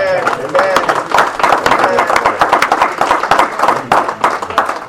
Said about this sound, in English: Give God another hand clap.